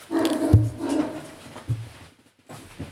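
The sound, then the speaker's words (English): A dog barks and whimpers in a few short, uneven bursts, with low thumps and some background noise between the sounds. “Out here yelling and, and barking for what?”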